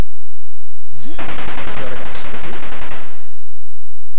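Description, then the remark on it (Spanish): A quick rising electronic blip leads into a loud, harsh video-game explosion, a dense crackling roar that rumbles for about two seconds before cutting off abruptly. “Explosión. I am dead.”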